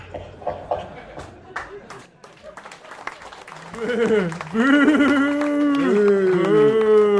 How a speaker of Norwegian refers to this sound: Oi. Hvem er det som klapper?